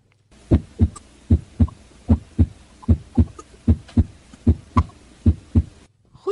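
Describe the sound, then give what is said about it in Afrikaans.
A normal heartbeat with clear lub-dub pairs from the heart valves, repeating at a steady, even rhythm, about eleven paired thumps, distinct with no talking over them. “dit is nou 'n normale hartklank.”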